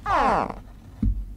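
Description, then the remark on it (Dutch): A baby alligator gives a single short, high chirping call that slides downward in pitch, followed by a soft low thump about a second later. The call is clear, with no talking. “Nou, ja, maar dat is jammer dat je dat zegt, want ik wilde graag de baby-alligator ook nog even laten horen.”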